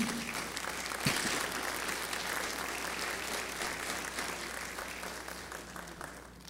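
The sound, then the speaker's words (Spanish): An audience applauds the Lord steadily for several seconds, a dense, even wash of clapping with a sharper burst near the start, then gradually thinning toward the end. No one speaks over it. “¿Le puedes dar un aplauso al Señor por eso?”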